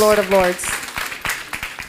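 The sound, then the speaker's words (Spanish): An audience applauds the King of Kings and Lord of Lords with a burst of irregular, sharp hand claps that keep going to the end, following a short sustained voice at the very start. “Démosle ese fuerte aplauso al Rey de Reyes y Señor de Señores.”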